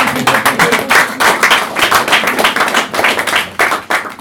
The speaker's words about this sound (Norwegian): Du kan klappe litt, da.